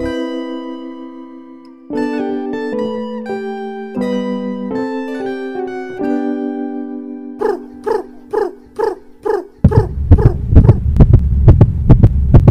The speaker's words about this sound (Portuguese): Tum, tum, tum, tum, tum, tum, hein? coração!